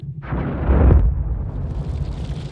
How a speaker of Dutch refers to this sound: De explosie van een fosforgranaat.